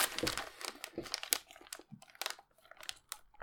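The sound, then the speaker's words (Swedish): A birthday present is unwrapped near the microphone: crinkling and rustling of crisp packaging, with irregular bursts of crackly noise across the whole clip and brief quiet gaps between handling movements. “eh, nu, får du, nu får du öppna det här nära mikrofonen.”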